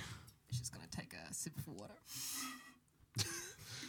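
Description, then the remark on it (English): Mouth noises: a loud, drawn-out slurping sip of water followed by a gulp and a short throaty sound, with some vocal murmuring around it. “A very audible sip of water”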